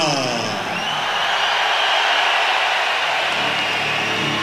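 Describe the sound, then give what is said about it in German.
A large crowd roars and cheers continuously in an arena at a boxing match, a dense, loud wash of voices that holds steady for the whole stretch. “Jetzt steigert sich der Jubel.”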